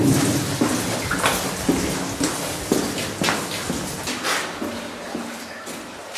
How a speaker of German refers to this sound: Also so, die ersten 20 Meter sind auch der Bereich, wo es ganz stark von der Decke tropft, wenn es geregnet hat. Und nach drei, drei vier Tagen hört es auch zu tropfen und nicht auch das Wasser abgeflossen.